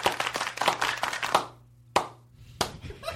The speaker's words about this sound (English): Um, I always like to be the last person applauding if I go to see someone. Like if I go to a concert, I will applaud till it's obviously it's me.